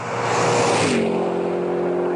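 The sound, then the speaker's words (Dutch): A car speeds past, its loud engine roaring and then dropping sharply in pitch as it goes, leaving a steady motor drone afterward. No one speaks. “Lekker hard rijden.”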